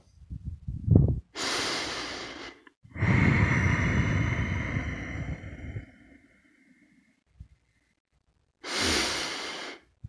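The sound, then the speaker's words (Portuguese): Slow, deep breathing in a guided breathing exercise: a long inhale followed by an extended, audible exhale, then a pause before another breath begins. No talking, just the breaths alone. “Sincronize na sua respiração com a minha.”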